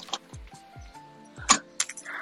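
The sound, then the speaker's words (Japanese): Keys jangle and click as a door is unlocked, with a few sharp metallic rattles, a faint squeak and soft low thumps, no voices. “鍵開けよ”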